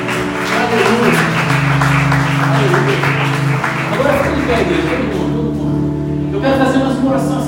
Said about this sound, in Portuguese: Em nome de Jesus, se você crê nisso, aplaude Jesus de todo o coração.